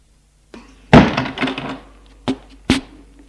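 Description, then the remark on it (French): A concierge swings a door shut with a heavy, resonant thud, followed a moment later by two sharp clicks, like a latch or lock catching. Fairly loud, with no voices. “Oui, je suis sûre et la concierge ferme la porte.”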